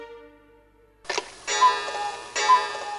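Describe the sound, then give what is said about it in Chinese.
A living-room clock strikes at midnight in the silence of the late night, sounding loud, resonant bell-like chimes with ringing overtones, several strokes in a slow, uneven rhythm after a fading earlier tone, with no talking. “客厅的时钟突然敲响，在夜深人静的午夜，时钟的声响显得格外的大”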